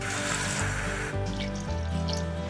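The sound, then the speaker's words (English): Water pours steadily for a couple of seconds into a saucepan holding sugar and light corn syrup, a continuous splashing rush that shifts slightly in tone as the vessel fills. No one speaks. “And some water.”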